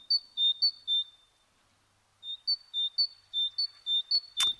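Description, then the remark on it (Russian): A great tit, the common yellow-and-dark bird seen at feeders, sings its bright, repetitive two-note song in rhythmic phrases, pausing briefly before starting again; clear, with a sharp click near the end. “Прежде всего, это большая синица, ну, самая обычная, которую мы видим на кормушках, такая э, желтенькая с темненьким, да, очень симпатичная.”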